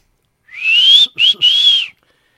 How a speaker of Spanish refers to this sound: No, pues no, que son bien chifladores, ¿eh?